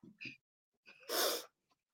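A single loud, harsh cough bursts out after a couple of short breathy vocal sounds, followed by a faint brief click, with no other talking.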